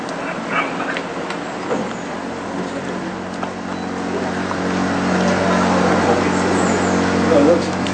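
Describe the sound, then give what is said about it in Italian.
A generator engine drones steadily and continuously, a low humming rumble that grows slightly louder halfway through, with faint voices and scattered background sounds mixed in. “Sì, magari questo rumore di generatore non è proprio...”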